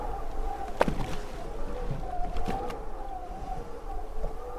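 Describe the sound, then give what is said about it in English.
Steady wind rushes over open water, pushing back receding water, its airy hiss carrying a low, wavering moan, with a few brief splashes or knocks rising out of the continuous wash. “The sound of wind passing by as it pushed back the water.”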